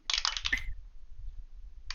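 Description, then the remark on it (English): Dice clatter and tumble across a hard tabletop in a quick, bright rattle as players roll initiative, then a pause before a second short burst of rattling at the end. No one speaks. “And for the first the first time this campaign, I would like everyone to roll initiative.”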